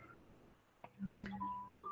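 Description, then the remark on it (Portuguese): A few taps followed by short electronic phone keypad beeps, steady tones held for a fraction of a second each, fairly clear with no one talking. “Pega o telefone.”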